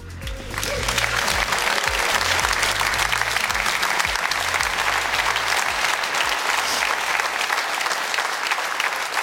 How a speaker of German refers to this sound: Ich genieße erstmal den Applaus.